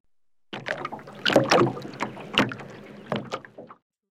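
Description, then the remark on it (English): Water sloshing and lapping against a small boat floating in a moat, with soft splashes and creaks coming in uneven bursts for a few seconds, moderately loud, with no voices. “See our boat float in the moat.”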